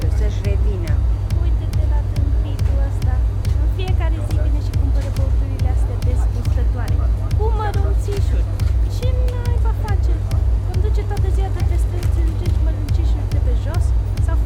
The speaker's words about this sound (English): No, I'm in a fucking shop. It's crazy. I'm standing in a queue behind some very loud women, and we're all watching the local policeman buy his energy drink with scraps of change and pennies.